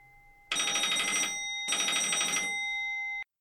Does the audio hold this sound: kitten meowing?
no